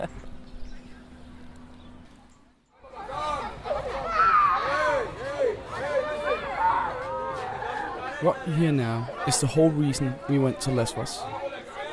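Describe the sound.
At Moria Refugee Camp, holding about 15,000 refugees, a dense crowd chatters all around, many overlapping voices, with scattered clacking footsteps, after a single voice speaks briefly over a quieter background at the start.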